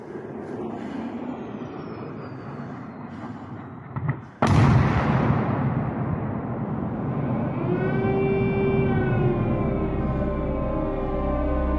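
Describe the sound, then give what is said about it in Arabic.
Heavy artillery shelling in Ukraine rumbles continuously, broken by one sharp, loud explosion near the middle, followed by an air-raid siren's sustained wailing tone rising over the ongoing booming. No voices are heard. “تدوي اصوات القصف وصافرات الانذار في اوكرانيا”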